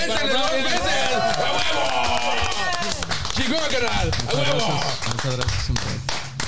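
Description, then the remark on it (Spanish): Scattered hand clapping runs through the whole stretch, with voices talking and calling out over it. The claps are quick and irregular, a small round of applause mixed into steady chatter. “Un aplauso para.”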